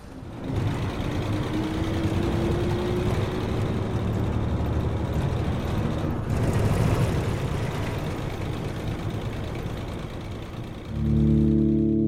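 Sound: car driving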